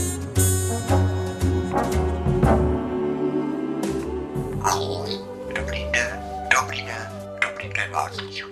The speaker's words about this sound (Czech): No jo, papoušek, dej pokoj.